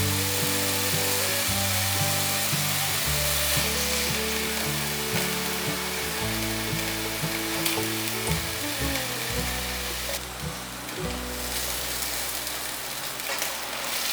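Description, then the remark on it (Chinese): King oyster mushrooms coated in sauce sizzle steadily in a pan, braised with the lid on for about thirty seconds and then flipped, a continuous bright crackling hiss with occasional stirring sounds, while a soft melodic tune plays underneath throughout. “先用筷子让杏鲍菇都沾到酱汁， 盖上锅盖，让它焖煮。我大概焖煮了三十秒左右，来给杏鲍菇翻面。”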